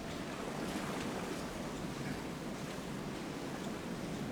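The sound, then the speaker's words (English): A video game submarine submerging from the surface beneath the waves: a steady, unbroken rush of churning water and bubbling surf that holds at an even level for a few seconds, with no voices. “The submarine is now submerging.”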